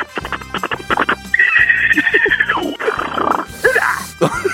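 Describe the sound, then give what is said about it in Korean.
A person imitates a zebra loudly in a voice impression contest on Park Myung-soo's radio show, starting with a quick series of rhythmic, barking yelps, then a long, strained, high-pitched squealing whinny that breaks into rough, breathy gasps. “얼룩말 소리 한번 내보겠습니다.”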